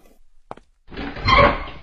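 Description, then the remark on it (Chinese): A short sharp click, like a latch, then after a brief pause a louder, sustained rushing creak as a door is slowly opened after the doorbell rang. No one speaks. “老鼠牙医慢吞吞的去开门”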